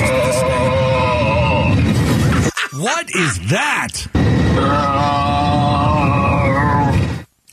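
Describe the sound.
A loud, sustained moaning drone with wavering, sliding pitch from the cabin of an American Airlines plane, rising and falling in swoops over a steady rumble, with a brief voice asking a question.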